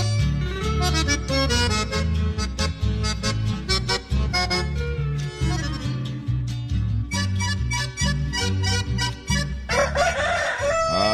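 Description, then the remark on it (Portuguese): A grey rooster crows loudly near the end, its drawn-out call rising over steady, busy music with bass and percussion that plays throughout. “Olha o galo cinza”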